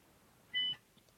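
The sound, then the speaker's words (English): A single short electronic beep as a button is pushed to start a call, steady and fairly high-pitched with a few clean tones stacked together, lasting about a quarter second against a quiet background. “I'm going to start a call and then I'm going to look.”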